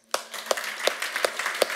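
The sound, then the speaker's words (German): A church audience applauds with a steady wash of many hands clapping, punctuated by five sharp, evenly spaced claps in unison that give it a regular rhythmic beat. “Wir haben jetzt eine Räumlichkeit, gebt mal einen Applaus.”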